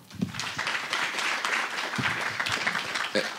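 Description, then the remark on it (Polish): A crowd applauds steadily for a psychology professor who has just been introduced, a dense wash of many hands clapping, with a few louder individual claps standing out and faint voices mixed in. “Również proszę o gorące brawa.”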